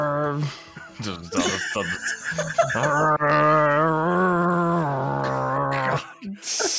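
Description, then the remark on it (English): A voice imitates a bagpipe, holding a nasal, droning tone with wavering pitch for several seconds after a few short choppy starts, ending abruptly with a brief noisy burst. “I mean, it definitely sounds like you're strangling a cat.”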